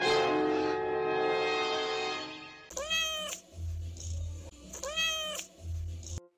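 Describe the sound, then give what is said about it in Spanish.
A pet kitten named Tutti Frutti meows, two clear high-pitched meows a couple of seconds apart, following an earlier long, drawn-out tonal cry. No one speaks. “En él está la voz de mi gatito Tutti Frutti.”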